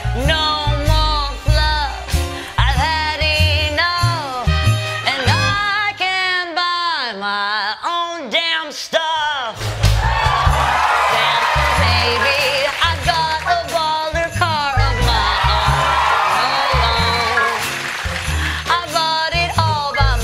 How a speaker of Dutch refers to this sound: luister ook even naar deze versie van eh, …, die … bij Jimmy Fallon zong